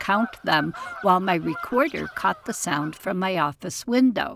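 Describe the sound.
A group of four migrating Canada geese honk repeatedly as they pass overhead, their calls mixed in with a person talking steadily through the whole stretch, the honking clear beneath the voice.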